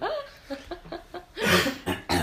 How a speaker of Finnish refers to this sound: jos mä puhun liikaa, niin rupeaa yskittää vaan toipumassa, toipumas tässä kuolemantaudista.